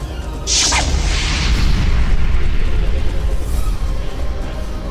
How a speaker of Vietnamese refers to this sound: đến lầu bát giác chất rơm và đổ thuốc súng châm lên sau đó ung dung bước vào lửa đỏ quyên sinh